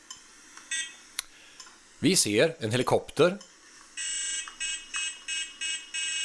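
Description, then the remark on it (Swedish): Electronic beeps from a Game & Watch Parachute handheld game: a few short blips, a man speaking briefly, then a steady run of evenly spaced, bright buzzy tones. “Men Parachute, det har vi här. Hittar jag också på YouTube. Ska se. Ja, det hörs lite ljud här.”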